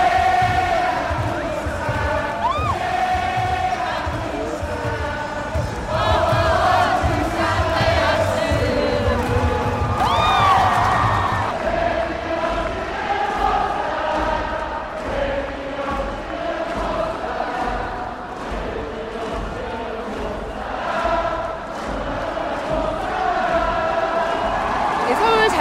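A big baseball stadium crowd of Doosan and LG fans cheers steadily at the Korean season opener between the two rivals, chanting and shouting in rhythmic waves with whoops rising over a dense, continuous roar, loud throughout and without pause.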